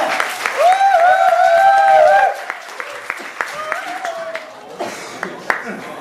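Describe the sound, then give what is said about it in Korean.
An audience claps steadily to welcome a guest speaker after being urged to clap harder, the clapping loudest at first and thinning toward the end, while a few voices cheer and call out over it. “아, 박수가 약하다 좀 세게 쳐봐.”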